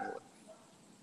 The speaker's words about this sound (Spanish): se escucha un chingo ese perro, güey, no, me deja hablar, mira. O hablo yo, o habla el perro. Ah, pues, se escucha mucho.